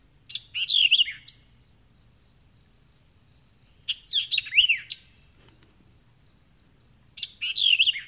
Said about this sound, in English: Um, there we go. So this is the white-eyed vireo.